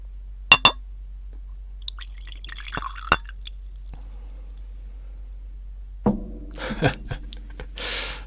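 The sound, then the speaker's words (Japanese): Gin poured into a glass with a couple of sharp clinks at the start, then a gurgling pour and trickling splashes, no one speaking. “さて今日は、ちょっと寝る前なんで、このね、なかなか減らないジンスパイを飲もう。”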